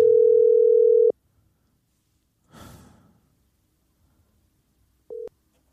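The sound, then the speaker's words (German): A steady telephone dial tone hums for about a second while a call is being retried, then cuts off; after a pause comes a breathy exhale, and later a short burst of the same tone returns briefly. “Wir hören wieder ein Amt.”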